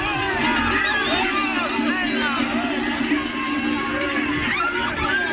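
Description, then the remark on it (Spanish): Dense outdoor ambience of a farmers' protest in Oviedo, Spain, at midday: a crowd's steady roar with overlapping shouts and voices, a low continuous drone underneath, and occasional mooing-like calls rising through the din. “Este es el sonido, es el sonido ambiente de las protestas de agricultores en Oviedo este mediodía.”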